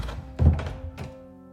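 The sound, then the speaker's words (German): A door to the hall of an orphanage is pushed open with a heavy, dull thud, followed by a couple of quieter bumps, and then a faint lingering hum as it settles. No voices are heard. “Ich stieß die Tür zum Saal auf.”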